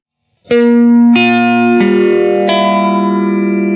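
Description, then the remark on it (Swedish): An electric guitar played through a Phase 90 phaser pedal with a little drive added, four sustained chords struck in turn with a slow swirling sweep and some overdrive, loud and ringing with no one talking. “Nej men alltså Face 90-ljudet är ju det som alla känner igen, som är det som är mest använt av alla Face-ljud”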